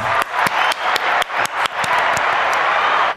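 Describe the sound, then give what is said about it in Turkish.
Audience applause: a dense, steady wash of many hands clapping, with a few sharper individual claps popping out early on, lasting about three seconds before cutting off abruptly. “Alkışladın mı?”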